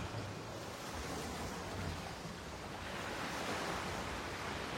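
Sea waves wash steadily onto the shore in a continuous, broad rushing roar, with gentle swells rising and falling and no voices present.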